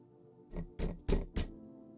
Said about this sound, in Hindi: फिर जोर से दस्तक दी